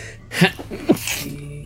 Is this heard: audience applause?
no